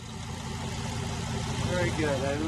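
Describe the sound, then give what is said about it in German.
Race car engines rumble steadily on a racetrack in Detroit, built where a factory once stood, in a constant, fairly loud wash of mechanical noise, with a faint voice surfacing briefly near the end. “Nach Pleite und Abriss dröhnen jetzt wieder die Motoren.”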